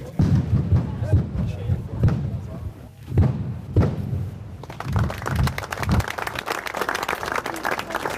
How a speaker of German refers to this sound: Und schon ist sie durch, die erste grosse Sprengung. Wo der Staub sich langsam leitet, sieht man überall Felsstücke liegen und im Berg ist eine kleine Höhle entstanden.